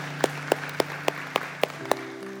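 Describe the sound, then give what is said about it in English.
A church audience claps in steady unison, seven sharp even beats roughly a quarter-second apart, over a sustained, held musical tone in the background. The clapping welcomes those who have just prayed a prayer of salvation. “Church family, let's welcome those who prayed that prayer.”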